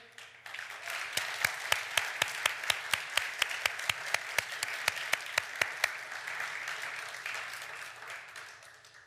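An audience applauds loudly for the Lord in a sustained, dense wash of clapping, with crisp, evenly spaced claps cutting through rhythmically for several seconds before the applause carries on steadily.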